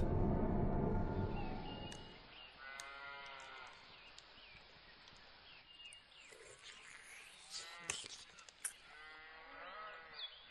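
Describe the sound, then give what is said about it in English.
Cows moo a few times in drawn-out, wavering calls, opening over a loud low rumble and then trailing off into quieter, scattered moos against a farmyard background. “For example, look at the personification of cows in Rumination.”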